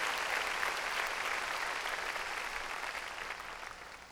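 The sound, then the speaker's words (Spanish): An audience claps loudly for the Lord in a dense, steady wash of applause that holds strong throughout, easing only slightly toward the end, with no voices standing out. “Démosle, démosle palmas fuertes al Señor.”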